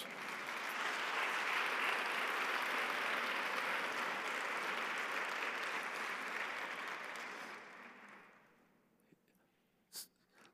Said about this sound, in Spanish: Den un aplauso a Jesús.